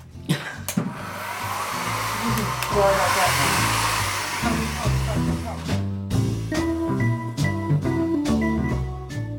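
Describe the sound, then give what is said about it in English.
Hair dryers blow with a steady, loud whooshing roar to dry fresh paint, while people talk over it. “So we're now letting that dry. We've got hair dryers to dry.”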